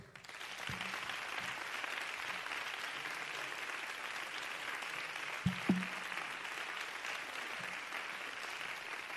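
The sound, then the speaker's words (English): An audience claps steadily for several seconds with their mouths closed, a dense wash of many hands with no cheering or voices; a couple of thumps stand out near the end. “We're going to clap our hands this time, but we're going to keep our mouth shut.”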